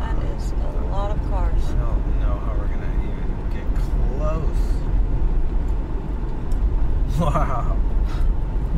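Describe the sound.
Steady, dense traffic rumble fills the scene, a continuous roar of cars on a busy road in the small rural town of Rome in the American South, with cars queued and parked along every road for a Trump rally, and indistinct voices calling and chattering over it.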